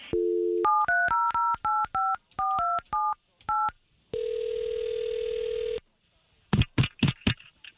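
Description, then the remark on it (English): A short dial tone gives way to about a dozen quick touch-tone beeps as radio show hosts punch in a man's phone number to call him, then one long steady ringback tone, followed by a few brief clattery bursts. “we'll take this number that you gave us, Ed, and we'll call him right now”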